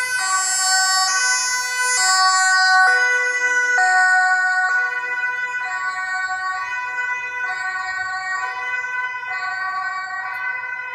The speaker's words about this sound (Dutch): Ja, dus we hebben nu wind gehad en nu hebben we sirenes op de achtergrond. dus dat is goed. Ja, die laten we eventjes voorbij komen.